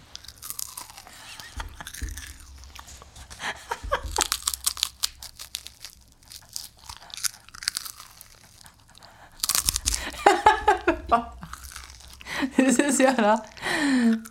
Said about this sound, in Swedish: Du måste ju viska också och berätta vad det är du äter. This is a ricekaka.